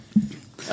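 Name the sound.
dog whimpering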